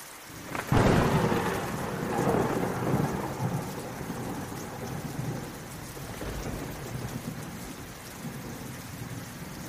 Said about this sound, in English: I used to love the sound a drop of water makes after free falling at peak velocity from the heavens as it crashes into its destination with a complete and sudden certainty.